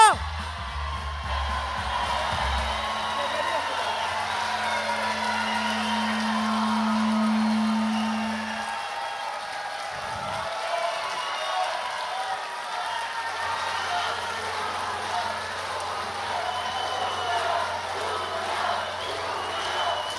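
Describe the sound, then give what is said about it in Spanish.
A large audience at the Foro Salvador Allende of the Feria del Libro del Zócalo claps and cheers steadily for about twenty seconds, welcoming Julio Astillero, a dense, continuous wash of applause with scattered whoops and shouts rising from the crowd. “Y les pido por favor un aplauso enorme para Julio Astillero.”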